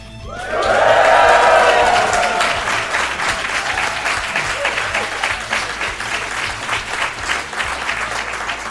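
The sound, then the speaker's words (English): A live audience at the Asia Society Switzerland in Zurich bursts into sustained applause, with a brief swell of cheering and whoops at the start, then steady dense clapping that continues evenly to the end. “Let's hear what that famous Swiss enthusiasm sounds like.”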